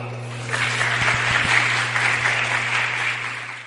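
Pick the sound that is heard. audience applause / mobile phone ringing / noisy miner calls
audience applause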